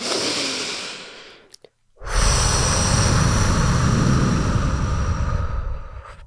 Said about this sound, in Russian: как только вспоминаю об этом, я делаю прям вот этот шумный такой длинный выдох, такой... Давай, и выдох должен быть длиннее вдоха.